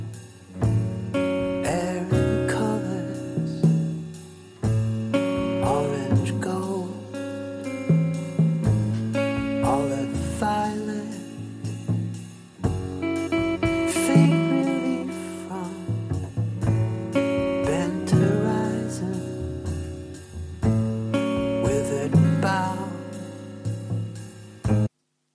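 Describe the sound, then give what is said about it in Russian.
A jazz-folk instrumental plays steadily for the whole stretch, with layered melodic tones and a full, even loudness. No one speaks over it. “Я предлагаю поставить еще один трек для ознакомления.”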